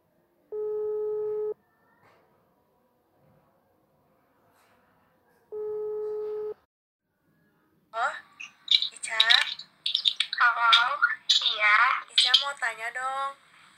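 outgoing phone call ringing

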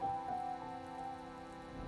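rain falling

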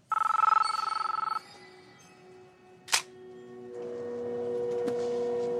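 telephone ringing

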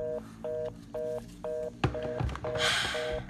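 telephone call dialing tone

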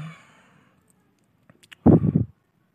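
deep exhale

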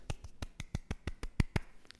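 short applause

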